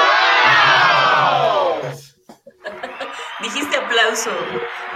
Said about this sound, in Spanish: aplausos a Luis, ¿no?